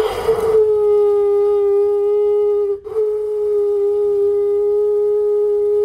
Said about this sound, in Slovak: Tak som vygooglila zo pár videí od ľudí, ktorí mali viac šťastia ako ja. Trúbiaci kameň znie takto.